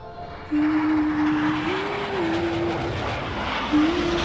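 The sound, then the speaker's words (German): A Bundeswehr Starfighter military jet fighter roars overhead in the sky above Brinkebüll, a loud, sustained engine rush that kicks in abruptly and holds steady with a droning, slightly wavering whine running through it. No voices. “sah die Zeichen, die die Starfighter der Bundeswehr am Brinkebüller Himmel hinterließen.”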